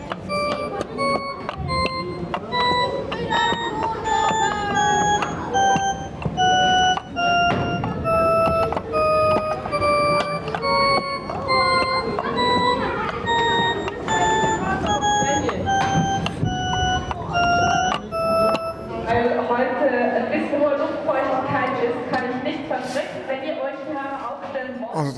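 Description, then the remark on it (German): An endlessly rising tone illusion heard at the Technorama: stacked electronic notes step upward again and again in a steady, loud staircase, each seeming higher though it always starts over, never seeming to top out, then gives way to murmuring voices near the end. “Das tönt, wie wenn das jedes Mal der höhere Ton wäre. Dabei fängt es immer von vorne an.”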